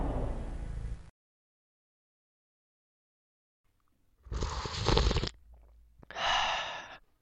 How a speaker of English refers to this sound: Mm, a quick sip of my coffee just to get me in the mood for today's program.